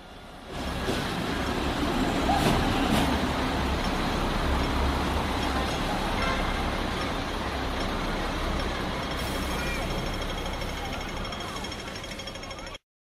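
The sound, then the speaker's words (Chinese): Street scene in Causeway Bay on Hong Kong Island with a Hong Kong 'ding-ding' tram rumbling along the rails, a steady, loud low-pitched roar and clatter of wheels lasting throughout, mixed with traffic noise and indistinct background voices. “因为我我觉得啊，呃，你说香港和九龙其实是两个地方，那 对 香港岛，你一到了香港岛，哎，马上你就可以听到叮叮叮，就是那个那个上 电车 层巴士 的声音”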